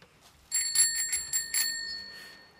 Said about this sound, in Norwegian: ringer med denne bjella, så skal alle skåle.